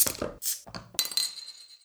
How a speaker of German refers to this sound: Und bevor wir jetzt weitermachen, machen wir jetzt erstmal Prost. So sieht's aus.